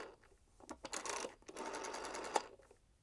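A rotary telephone dial is turned and spins back several times to dial a phone number, producing rapid whirring clicks in short bursts, with no voices.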